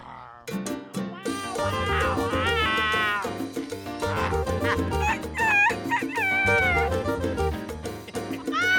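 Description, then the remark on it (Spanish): Voices imitate cat meows, several drawn-out, wavering mewing cries in quick succession, loud over a dense, busy background of other sound. “El león, ¿cómo hace el león, los gatos? Dime cómo dice.”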